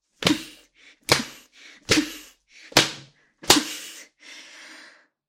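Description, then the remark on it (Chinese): Five sharp, loud leather whip lashes crack at a steady pace, each followed by a breathy gasp or whimper, ending with a longer drawn-out moaning breath. “就让我用手里这根皮鞭，把你变成一条彻头彻尾的贱狗吧。”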